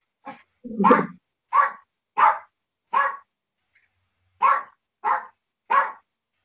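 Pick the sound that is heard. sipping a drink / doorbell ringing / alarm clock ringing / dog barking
dog barking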